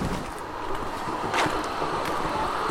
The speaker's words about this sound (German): Wir laufen eine stark befahrene Straße entlang, mit Geschäften und Schnellrestaurants auf beiden Seiten und biegen ab in einen Park.